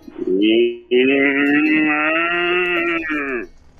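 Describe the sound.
A person pretending to be a dairy cow imitates a cow, giving a long, drawn-out moo that starts with a short lowing burst, pauses briefly, then holds a steady, loud moo for several seconds.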